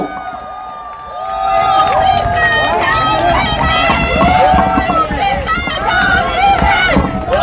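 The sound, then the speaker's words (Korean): A large crowd at a rally at Gwanghwamun erupts in loud, sustained cheering and applause to welcome speaker Byun Hee-jae, many voices shouting over one another for several seconds after a brief quieter moment at the start. “여러분 뜨거운 박수로 맞이해 주십시오.”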